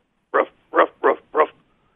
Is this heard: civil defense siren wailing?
no